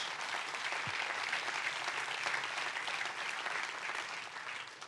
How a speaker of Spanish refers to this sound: Den un fuerte aplauso a Dios.